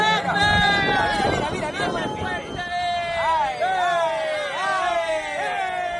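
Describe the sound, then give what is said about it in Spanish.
Onlookers at the port of Barbate cheer and whoop at drug traffickers' high-speed boats, loud high cries swooping up and down in repeated bursts over a steady background of crowd hubbub and low rumble. “Escuchamos a espectadores que jaleaban a los narcotraficantes.”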